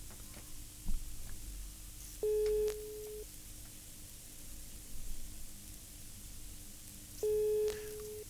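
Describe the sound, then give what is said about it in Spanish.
A phone line's ringback tone sounds twice while a call is placed to a producer, each a steady one-second beep spaced several seconds apart, over a low background hiss with no one speaking. “Suena la una.”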